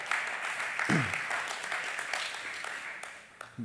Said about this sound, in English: Now, I appreciate that applause. I know it's not for me, it's for the comment, but I, this is what Joshua would do right now. Really? You're clapping. That's good, but do you realize what that clap means?